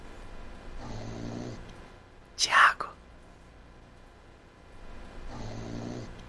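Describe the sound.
A person snores while asleep in slow, rhythmic breaths, two raspy snores spaced several seconds apart, with a brief whispered voice between them.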